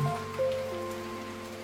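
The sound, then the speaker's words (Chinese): Steady rain falls with a soft, continuous hiss, joined by sustained low musical tones humming underneath. No one speaks. “天在下雨，我在想你”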